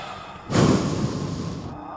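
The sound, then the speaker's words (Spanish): A voice imitates a sorcerer breathing hard with his eyes closed: one long, loud, breathy exhale or rush of air starting abruptly and sustained for over a second, with no words spoken. “Cerró sus ojos comenzó a respirar fuerte.”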